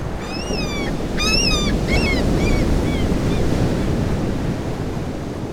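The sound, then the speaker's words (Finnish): Steady, rushing waves wash against the shore of an open freshwater lake while wind blows across the microphone. A few high bird calls chirp over the surf early on, then fade out. “Makeaa vettä. Ehkä järvi. Järven selkä.”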